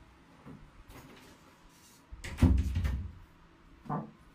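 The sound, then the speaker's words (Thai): A door swings shut with a heavy, rattling thud, surrounded by a few smaller knocks and shuffling handling noises, as someone closes the door before starting a live stream. “เดี๋ยวขออนุญาตไปปิดประตูแป๊บหนึ่งนะเออเดี๋ยวแป๊บนึงแป๊บนึง”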